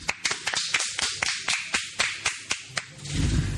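Sparse applause: about a dozen sharp, evenly spaced claps in a quick steady rhythm, fairly loud, ending in a low rumbling noise, with no one speaking.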